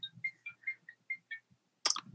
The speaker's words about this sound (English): Oh, that's my phone going.